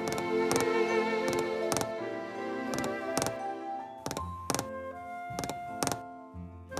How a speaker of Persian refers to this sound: این صدا صدای کوبیده شدن کله سوسک به زمین برای اطلاع رسانی و جفتیابی هستش مثل یه جور نوتیفیکیشن برای جنس معنیس که آقا من زن میخوام با کوبوندن کلش به زمین آقا سوسکه همینجوری کلش رو به زمین میکوبونه و میره جلو به امید اینکه یه جوابی از یه خانومی بگیره